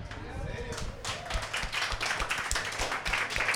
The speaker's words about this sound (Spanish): yo, yo, voy a decir, sí, un aplauso. un aplauso para Robert Foster. Un aplauso para Robert Foster, por favor.